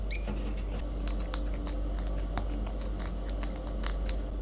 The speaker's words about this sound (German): Spiel nochmal den Fiepser.